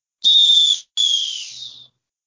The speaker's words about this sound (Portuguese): Apito final no Boleirando de hoje.